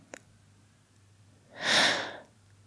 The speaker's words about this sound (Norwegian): Alle historier starter med at noen trekker pusten.